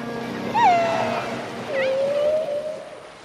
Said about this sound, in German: Wale und Delfine orientieren sich durch Schall. Sie sprechen miteinander unter Wasser oder jagen. Und das klingt einfach herrlich.